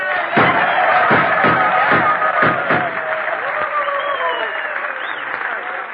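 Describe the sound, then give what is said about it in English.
A studio audience gives a Western-style reception, applauding and cheering loudly and steadily, with a burst of sharp, evenly spaced gunshots punctuating the first few seconds before the clapping and whooping carry on. “Well, how's that for an ovation, Jackson? Gunshots and everything.”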